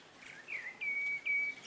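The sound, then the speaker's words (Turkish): A bird sings a short phrase of clear, high whistled notes, rising into two sustained tones in quick succession, with faint background hiss and no talking. “Kuşların ötmeye başlamasından.”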